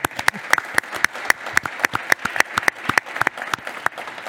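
An audience applauds steadily, a dense patter of many hands clapping with sharp individual claps standing out in an irregular rhythm, fairly loud and with no voices over it.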